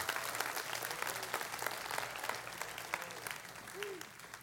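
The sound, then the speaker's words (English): A church audience applauds steadily to give the Lord a hand, dense clapping at a moderate level for several seconds, with a faint voice and a brief tone near the end. “Come on, give the Lord a hand.”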